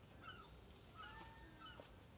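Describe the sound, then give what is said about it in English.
Seagulls cry faintly, a few drawn-out calls over a steady outdoor hum, with no one speaking. “The jungle's alive here, and they, the seagulls are definitely alive.”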